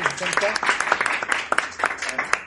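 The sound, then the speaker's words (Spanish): A burst of applause welcoming a show's second guest, with many hands clapping in a dense, uneven patter for a couple of seconds. Voices can be heard faintly mixed in with the clapping. “Un aplauso,”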